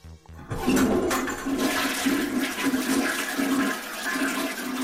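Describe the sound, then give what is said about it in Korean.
A toilet flushes loudly, a sudden rush of water that churns steadily for several seconds with a gurgling swirl, no voices present. “아, 시원하게 내려가네.”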